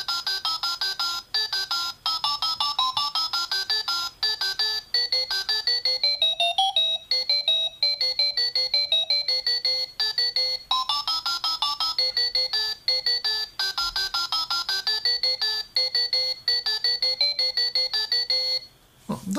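A bright electronic tune of quick, beeping tones, played after the minute button is pressed, steps up and down in a repeating melodic pattern, like a ringtone or alarm-clock chime, playing steadily for nearly twenty seconds without any talking.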